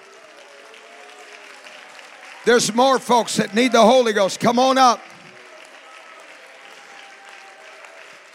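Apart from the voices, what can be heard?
audience clapping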